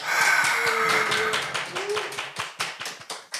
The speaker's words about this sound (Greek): Ένα τεράστιο χειροκρότημα.